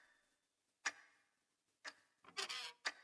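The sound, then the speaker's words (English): A clock ticks, sharp clicks arriving roughly once per second, with a brief rattling flurry between two of the ticks. Soft, with no voices. “Neither spoke, but lay silently listening to the ticking of the clock.”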